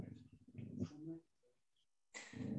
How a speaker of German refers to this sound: Der Hund knurrt